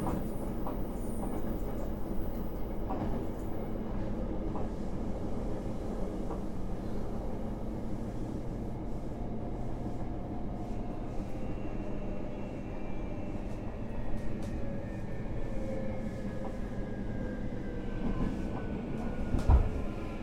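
A JR Kyushu 821 series electric train runs steadily from Minami-Fukuoka toward Hakata, with a continuous low rumble and faint clatter of wheels, while a rising and falling motor whine glides through the higher tones; no voices are heard.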